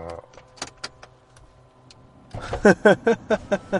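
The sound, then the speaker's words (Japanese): A few sharp clicks and knocks from handling a window latch, then a louder run of rhythmic scraping, rattling pulses as the window slides open, with no one speaking. “なんかね、それ窓開けたら。窓開けるんやな。”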